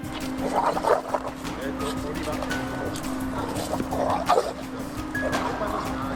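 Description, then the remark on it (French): A large dog, a Rottweiler, barks aggressively in rage in two separate loud bursts, over a steady low mechanical hum that runs through the whole recording. “Ça explose complètement de colère de rage, de haine, on sent de la peur, mais pas forcément de la peur de l'humain, plus de la peur de la vie.”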